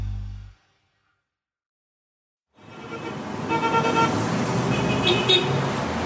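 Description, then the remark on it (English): After a short burst of low rumble and a couple of seconds of silence, dense city traffic noise from the streets of Caracas, Venezuela swells in, a steady engine drone with scattered horn toots, heard from inside a moving bus. “Right now, you're hearing the streets of Caracas, Venezuela, specifically inside a bus.”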